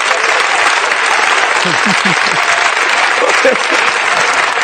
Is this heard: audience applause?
yes